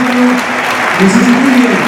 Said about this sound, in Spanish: Y sale Mendu. Ovación. en, en, pie Castalia, ¿eh? En pie Castalia para despedir a Medun.